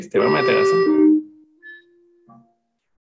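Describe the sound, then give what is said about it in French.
A person talks briefly, then a low, steady bell tone rings on softly after the speech stops, with brief higher chimes and a short clunk near the end. “La cloche. Et voilà, c'est chiant.”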